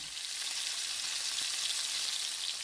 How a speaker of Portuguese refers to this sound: Mas vamos aproveitar que esse óleo ainda está clarinho, dá para continuar a fritura por aqui.